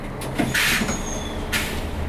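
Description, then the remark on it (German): An old city bus on the line from Dudweiler-Sulzbach to Saarbrücken, Germany, early in the morning, rumbles steadily from inside, with two short bursts of hissing rattle and a thin, high squeak drawn out in between; no one speaks. “Alles rappelt und quietscht, weil wir mit einem alten Bus unterwegs sind.”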